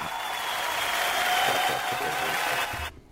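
A steady burst of applause, dense and fairly loud, many hands clapping at once for about three seconds before it stops abruptly, welcoming a guest.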